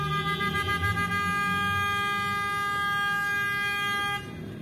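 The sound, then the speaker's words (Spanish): A chorus of car horns blares at once in city street traffic at an intersection on 7 December, several sustained, overlapping honks held steadily over a low engine rumble before abruptly cutting off near the end. “No sé si al fondo logran escuchar este concierto de bocinas.”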